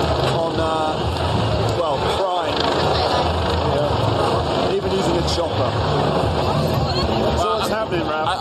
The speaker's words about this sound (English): Check out the chopper. Check out this big chopper. The police are like cracking down